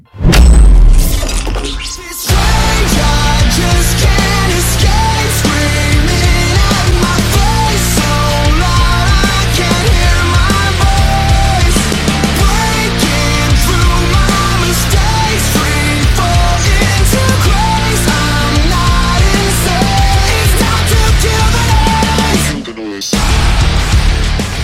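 The opening track of a rock album: a loud, dense rock song with distorted guitars, pounding drums and steady harmonic layers, playing continuously at high volume, with a brief drop and break near the end before the music resumes.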